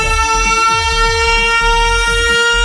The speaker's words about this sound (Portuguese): A outra sirene.